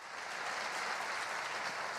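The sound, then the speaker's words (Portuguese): Steady applause from an audience applauding the name of Jesus, a dense wash of many hands clapping at an even loudness for the whole two seconds, with no voices over it. “Se você quer viver uma fé bíblica, aplaude o nome de Jesus, celebre o nome de Jesus, é pela palavra.”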